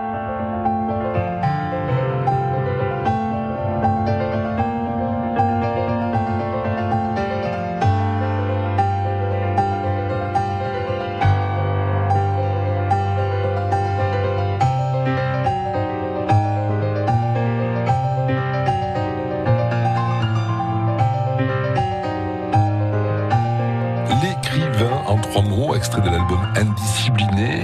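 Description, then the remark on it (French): A music track from a pianist's first album plays steadily at full volume, rich sustained chords and a melodic line over a low bass, with a bright, noisy crash of sound in the final few seconds. “Avec ce dernier extrait que nous écoutons avant de nous séparer”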